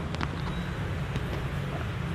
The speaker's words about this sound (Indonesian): sepurane nek iki ono suara-suara dhewe iki podcasting ngemper nang embung suara-suara mobil